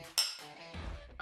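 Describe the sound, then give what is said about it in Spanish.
A sharp, bright clink of glass touching glass in a toast, with a short ringing tail, followed by some soft knocking and shuffling. No one speaks. “salud. Salud.”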